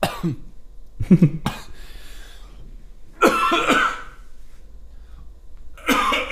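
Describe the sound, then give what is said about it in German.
A coughing fit: several harsh, loud coughs come in uneven clusters with short pauses between them, a longer throaty burst in the middle, and no talking. “Wir überspielen diesen Hustanfall mit leichter”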